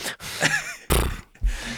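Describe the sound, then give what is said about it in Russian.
A person mimics a horse with the lips, giving a wavering, high-pitched whinny followed by two loud, blubbery lip-flapping snorts, with no talking. “У нас в гостях конь.”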